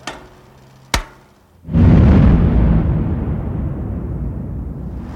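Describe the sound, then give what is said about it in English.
After the blast man is handed the detonator and shouts "Fire in the hole!", two sharp cracks ring out a moment apart, then a deep, heavy blast erupts into a loud, sustained roar of rumbling debris that slowly fades over several seconds, an underground tunnel blasting explosion. “hands the detonator to the blast man, who shouts out the final warning. Fire in the hole!”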